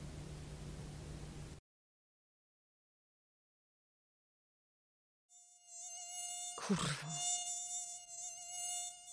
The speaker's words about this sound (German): Piotra kann nicht mehr schlafen. Sie ist genervt. Die Mücken nerven.